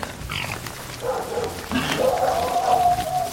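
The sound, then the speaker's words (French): Dogs bark and yelp, a few overlapping calls followed by a drawn-out, whining cry, set against a steady outdoor background. “Très vite, les laits et les marcassins passent devant et filent dans la direction opposée aux aboiements.”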